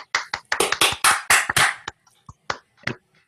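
A short burst of applause as a friend is introduced, quick sharp claps running together for under two seconds, then tapering off into a few scattered, separate claps before stopping.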